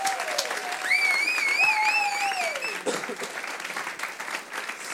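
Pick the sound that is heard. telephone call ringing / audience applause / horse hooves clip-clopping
audience applause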